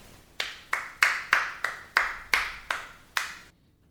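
One person claps their hands about nine times in a steady, fairly quick rhythm, each clap sharp with a short ring after it, played as an example of a person's clapping style. No one speaks.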